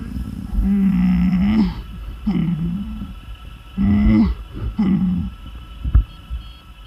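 An injured man, lying on his back among large rocks after hitting a mountainside, gasps for air in four strained, rasping breaths, each a raw voiced heave with a harsh edge and short pauses between them, with no other talking.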